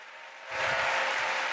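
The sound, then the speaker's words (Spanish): Dense crowd applause from a large audience at the end of a musical performance, before Tim Cook comes on stage, swells suddenly after a moment of quieter hiss. It then holds steady and loud as a continuous wash of clapping. “Bueno, y con esta ovación eh, termina la actuación”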